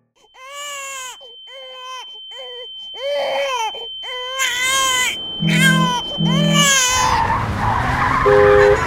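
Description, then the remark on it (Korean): A baby wails in repeated rising and falling cries, growing louder and more strained, joined near the end by a steady tone and a low rumbling, noisy background. “아기소리”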